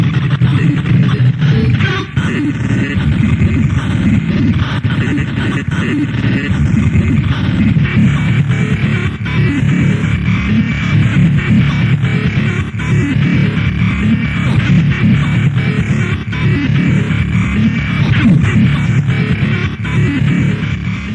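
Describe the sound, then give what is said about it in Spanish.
Dense, chaotic circuit-bent electronic music played from a cassette drones and buzzes loudly without pause, a thick low rumble under scratchy glitching textures. No one speaks. “lo que acaban de escuchar es al padre de lo que estaremos hablando hoy, este movimiento musical que se llama Circuit Vents”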